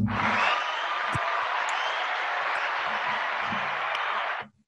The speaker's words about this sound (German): Vielen Dank. Danke sehr. Ein Applaus für euch.